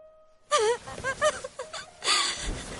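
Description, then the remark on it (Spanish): A woman, a princess, cries and wails loudly as she runs toward her parents, her voice rising and falling in sobbing, wavering bursts, with a long anguished cry near the end and breathy gasps between. “Corre llorando hacia ellos.”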